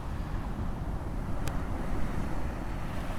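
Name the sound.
ocean waves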